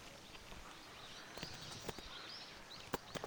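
A few irregular, hollow knocking footsteps on a hard surface, like walking over a wooden bridge, in a quiet outdoor setting with faint birds chirping in the background.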